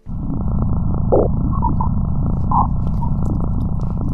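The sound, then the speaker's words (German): Sonified space probe measurements: a dense, steady low rumbling drone fills the whole stretch, dotted with a few brief, faint whistling tones. No one speaks. “Ja, es ist auch, was wir jetzt hören, das sind die Messungen”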